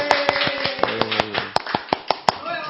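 Sharp hand claps ring out in a quick, steady rhythm, a dozen or so distinct smacks, with a faint sustained tonal hum running underneath, applauding the person running the broadcast booth.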